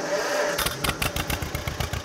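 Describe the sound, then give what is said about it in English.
A restored John Deere 40 tractor from Newton, Kansas, its engine turning over after a moment of quiet hiss, then settling into a steady, loud chugging rhythm with rattling clatter and no voices. “We're gonna go check out a John Deere 40.”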